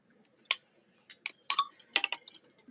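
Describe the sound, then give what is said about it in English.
Glasses clink together in a toast, a handful of light, bright taps spread unevenly over a few seconds, fairly quiet, with a cluster of quick clinks near the end. “Cheers.”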